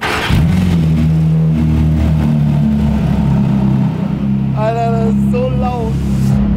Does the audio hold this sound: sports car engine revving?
yes